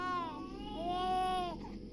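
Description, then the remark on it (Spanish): A newborn baby cries in a sustained, wavering wail that rises and falls, loud, then breaks off abruptly near the end with a short trailing whimper. “El llanto por segunda vez suena, pero esta vez con más fuerza.”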